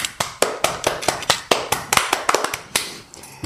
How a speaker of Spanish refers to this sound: Un aplauso de mano que no de tenedores en esta ocasión.